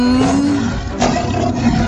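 A tiger roars loudly and up close, one sustained, rumbling growl lasting nearly two seconds, with no voices around it.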